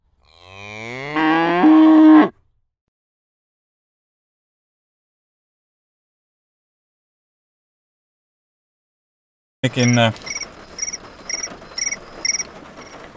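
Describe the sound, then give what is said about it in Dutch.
A phone notification telling the user to check her Chinese bank sounds first: a loud, rising, mooing-like tone lasting about two seconds. After a long silence, a phone alarm begins, with rapid, repeating high chirps pulsing in a steady rhythm. “misschien moet ik even allemaal alarmen uitzetten. Ze kreeg nu een notificatie dat ze haar Chinese bank moest gaan checken.”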